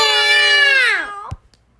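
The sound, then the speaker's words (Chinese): Several voices join in a loud, drawn-out imitation of a cat's meow, holding a steady high pitch for about a second before sliding down, followed by a brief thump and quiet. “这时候大家又再一次发出赞叹声：“喵！”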